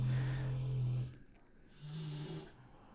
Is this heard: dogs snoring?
yes